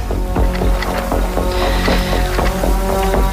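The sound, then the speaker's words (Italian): Loud, continuous roar of stormy wind and crashing waves around a boat on an artificial sea, a storm created over the boat by a TV show's director, with repeated sharp splashes and creaks breaking through the churning noise. No one speaks. “Ecco, e tempesta fu.”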